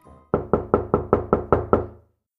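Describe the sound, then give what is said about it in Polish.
A rapid series of about eight loud, firm knocks on a door, evenly spaced, each with a short resonant decay, then silence. “Nagle rozległo się głośne pukanie do drzwi.”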